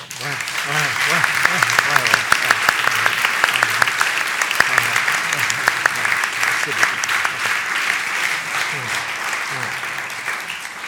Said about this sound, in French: Levons-nous euh, ceux qui étaient là au moment du démarrage. Oui. Je vous propose de les applaudir.